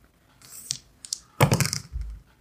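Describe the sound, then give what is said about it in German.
A hundred-sided die is tossed and clatters across a hard surface: a few light clicks, then a dense burst of rattling bounces before it settles with a soft thud. Nobody speaks. “Ein zwielichtig aussehender Elfendieb bietet der Gruppe für, würfel man B100?”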